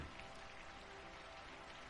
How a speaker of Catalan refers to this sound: Plou molt encara, però plou menys. Encara es veuen llamps i encara es senten trons. Però la pluja va parant, poc a poc.